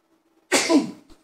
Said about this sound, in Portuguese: Deixa eu dar uma espirrada aqui, ó.